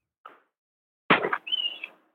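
A bird chirps in the background: a brief note, then a harsher burst followed by a sustained high whistle, fairly faint and heard over a phone line with no talking.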